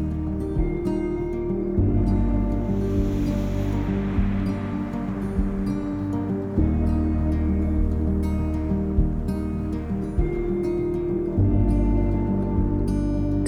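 Ocean waves wash onto a shore in a slow, rolling swell, one surge rising and fading midway, blended with a steady bed of sustained low tones. No one speaks.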